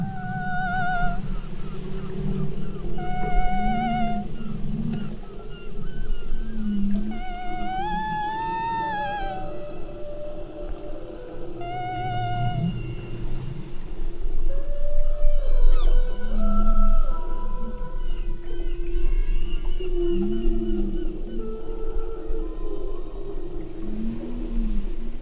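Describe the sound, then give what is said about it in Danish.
Long, wavering whale calls rise and fall in tonal sweeps and whistles over a steady low rumble of water and engine noise, recorded outdoors in rather wild weather, repeating throughout with no one speaking. “At synge med hvaler”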